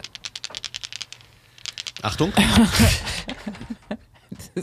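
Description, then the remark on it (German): A quick run of small hard clicks and rattles of a round die tumbling on a table, fairly crisp, followed by a short spoken word and laughter over a few last faint ticks. “Ich habe übrigens, ich habe einen runden Würfel mit.”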